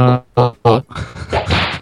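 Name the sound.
slap sound effect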